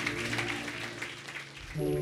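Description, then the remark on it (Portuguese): A church audience at the Nova Igreja de Ipanema claps steadily for the Lord Jesus in a dense, crackling wash of applause over sustained musical tones, with a new chord entering just before the end. “Você pode dar uma salva de palmas ao Senhor Jesus, porque Ele é bom demais.”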